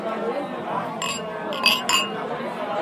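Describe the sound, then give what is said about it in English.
Several glasses clink together in a toast at the Malt Disneyland brewery, a quick cluster of bright, high-pitched taps heard over a steady murmur of voices and chatter. “So I think uh, we just have to uh, cheer to that”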